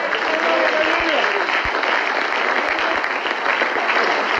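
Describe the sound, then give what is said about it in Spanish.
A church audience applauds the Lord loudly and steadily, a dense wash of clapping that holds for several seconds, with a few raised voices briefly audible in the mix at the start. “Dele fuerte si aplauso al Señor.”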